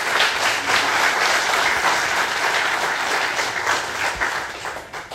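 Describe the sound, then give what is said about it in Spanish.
An audience bursts into sustained applause for the Lord, a dense crackle of many hands clapping at once, steady and loud for several seconds before starting to thin out near the end. “Dale aplauso al Señor, hermano, Él lo merece.”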